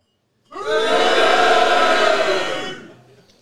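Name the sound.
audience booing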